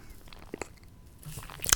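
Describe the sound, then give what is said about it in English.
A yawn: a few soft mouth clicks, then a breathy rush of air with a low, droning voiced groan that swells and ends in a sharper exhale. No one speaks. “that's a yawn, by the way.”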